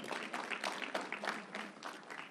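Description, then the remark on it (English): An audience claps steadily for a couple of seconds, a dense, even patter of many hands with no voices standing out above it. “We can, we can clap that up.”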